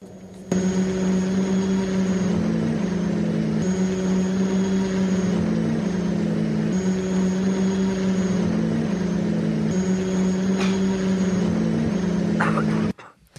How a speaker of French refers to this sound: C'est sur ce bruit curieux d'un drone en vol que nous accueillons Noah pour sa rubrique sur les nouvelles technologies.